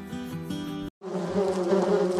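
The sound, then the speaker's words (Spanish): Honeybees buzz steadily, a single droning hum that cuts out for a split second, then returns as a thicker, louder swarm-like buzz. No one speaks. “contaros las anécdotas, los progresos e información que puedas tener caminando entre abejas”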